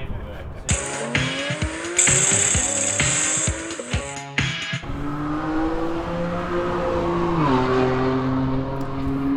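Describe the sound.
Loud racing cars at a track day at Mantorp Park scream past at high revs, with rising and falling pitch and a brief high tire squeal early on, then a steady engine drone continuing; a voice briefly mixes in.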